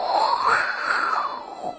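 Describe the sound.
A voice reading the picture book The Little Island by Margaret Wise Brown makes a long, breathy whooshing sound imitating wind blowing around a small island in the sea, its pitch rising and falling in a smooth swell for nearly two seconds, with no words spoken.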